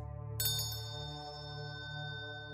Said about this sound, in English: And then the bell.